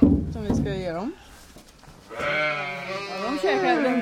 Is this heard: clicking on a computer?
no